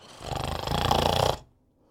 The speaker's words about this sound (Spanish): Escuchando los ronquidos, Pulgarcito se acercó al ogro.